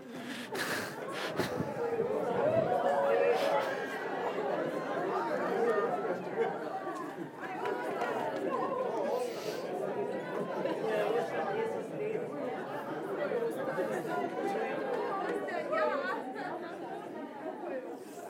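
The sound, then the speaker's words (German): A crowd of people stand up and greet one another, wishing each other Happy Easter, a dense, steady murmur of overlapping voices with no single speaker standing out, sustained throughout. “Vielleicht stellst du mal kurz auf und dann sagst du mal zu jemand frohe Ostern, so wie sie das gehört.”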